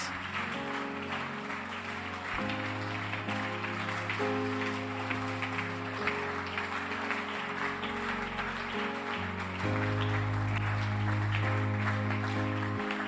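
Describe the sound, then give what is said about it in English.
A crowd claps steadily and continuously throughout, a dense rhythmic patter over sustained keyboard or organ chords that shift every few seconds, with no one speaking. “Keep clapping your hands.”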